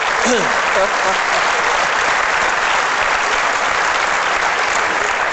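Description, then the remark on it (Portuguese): An audience breaks into loud, steady applause lasting the whole clip, a dense wash of many hands clapping, with a brief voice audible at the very start. “Vocês, vocês batem-lhe palmas e, e depois ele acredita mesmo no que está a dizer.”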